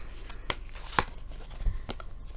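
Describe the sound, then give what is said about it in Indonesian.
Crisp tarot card handling as cards are shuffled and drawn: a few sharp papery snaps and flicks at irregular intervals over a soft shuffling rustle, with no one talking. “Kartu yang keluar adalah Hierophant.”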